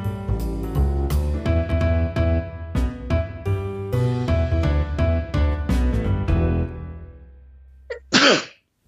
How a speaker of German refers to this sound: Gesundheit.